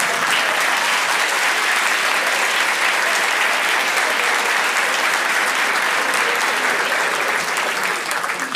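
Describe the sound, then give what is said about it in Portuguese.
Sustained audience applause fills the whole stretch, a dense, steady wash of many hands clapping at once, loud with no pauses or talking. “bom saber que vocês estão aplaudindo uma criança tomando tiro no pé.”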